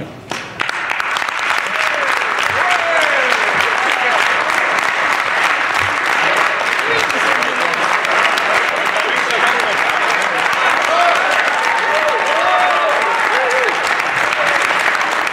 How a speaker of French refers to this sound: Bon, je pense qu'ils avaient le goût d'applaudir à la CAQ parce que c'est pas une phrase historique, là, mais on, est, déjà, on est déjà dans les euh, on est déjà dans les gros applaudissements.